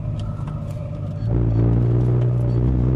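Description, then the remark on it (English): A car engine hums steadily as the vehicle drives around and around up the ramps of a parking garage, on level P1, growing louder and deeper about a second in, then holding a sustained low drone. “We're on P1 right now. Going around and around and around and around.”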